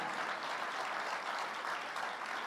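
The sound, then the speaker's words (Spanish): An audience breaks into sustained applause for the Lord, a dense, steady wash of many hands clapping at an even loudness throughout, with no voices standing out. “Denle un aplauso al Señor, así que Dios les bendiga.”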